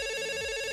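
A telephone rings with an incoming call to a radio call-in contest, a steady electronic tone with bright stacked harmonics held evenly through the short moment, fairly loud and alone with no voices over it.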